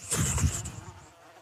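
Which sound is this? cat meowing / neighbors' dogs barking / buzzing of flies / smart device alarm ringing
buzzing of flies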